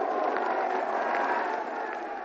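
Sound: crowd cheering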